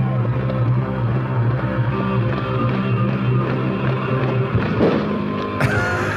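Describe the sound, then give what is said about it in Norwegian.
Loud, distorted live rock music plays throughout, heard from within a crowd at a concert in Drammen, Norway, and near the end one or two booming pyrotechnic bangs cut through it. “det smeller litt. Det small uh, eh, pyroen, ja.”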